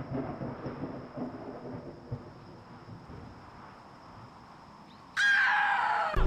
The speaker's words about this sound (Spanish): El viento sur se había tornado en una fría brisa que junto a los truenos que comenzaban a escucharse en la lejanía auguraban una tormenta inminente.